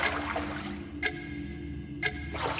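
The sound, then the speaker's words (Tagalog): Water is scooped and poured into buckets at night in a loose rhythm: a longer splashing pour, two quick splashes about a second apart, then another pour, over a steady low hum. “Ang katahimikan ng paligid ay bagyang nabasag ng tunog ng orasan at ritmikong pagsalok at pagsasali ng tubig.”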